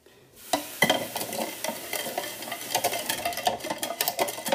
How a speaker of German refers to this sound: So, das Ganze dann auch gut umrühren. Also den Zitronensaft und das Wasser und den Zucker.